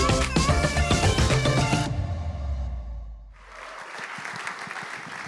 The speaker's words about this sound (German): Das ist euer Applaus, ihr Lieben.